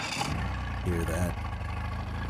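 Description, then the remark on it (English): A boat engine idles with a steady, low, throbbing hum in a radio advertisement for Nationwide Battery, running throughout while a voice briefly speaks over it. “For over 30 years, boaters and fishermen have counted on Nationwide to fire up their engines, to keep their electronics going, week after week”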